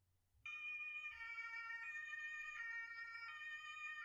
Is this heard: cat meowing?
no